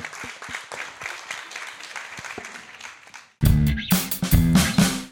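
An audience at a live panel recording at the Evolution Mallorca International Film Festival on 29 October 2022 claps steadily in dense, even applause for about three seconds, then the clapping is abruptly cut off by a much louder burst of music.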